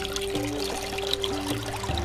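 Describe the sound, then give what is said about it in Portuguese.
Water pours and gushes steadily out of a rock for a couple of seconds, a continuous splashing rush with no voices over it. “Você baterá com a vara na rocha, e brotará água dela.”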